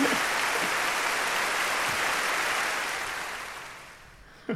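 A crowd bursts into loud cheering and clapping, a dense, steady roar of applause that holds for a few seconds and then gradually tapers off. No one speaks over it.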